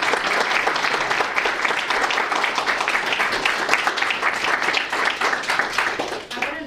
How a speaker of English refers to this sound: So um, with that said, I just want to give a quick round of applause and then I'll